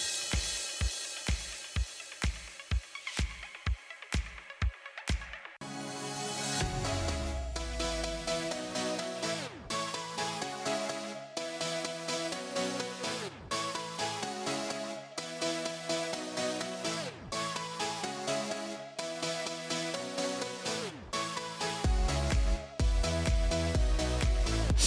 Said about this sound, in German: Das ist eine typische ….